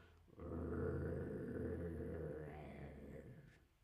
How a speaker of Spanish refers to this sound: Un perro hace gruñidos, hace un gruñido, sí, un perro puede gruñir, puede hacer un gruñido